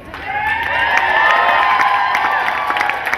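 crowd cheering

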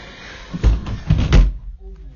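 door slamming shut

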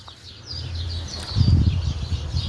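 birds chirping outdoors

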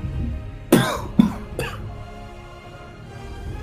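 coughing

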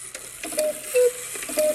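clock striking midnight

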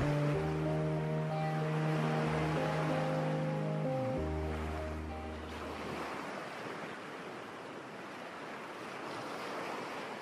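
ocean waves

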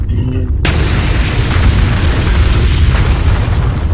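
explosion sound effect

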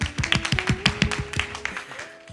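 hand clapping

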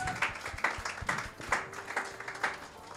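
audience applause

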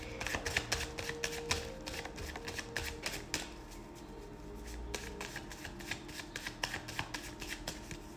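shuffling tarot cards

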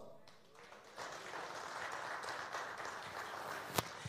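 audience applause

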